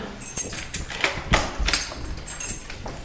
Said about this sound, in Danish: Nu skal jeg lige finde en rigtig nøgle her.